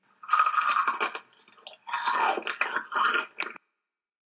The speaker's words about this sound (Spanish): Proceda a la masticación.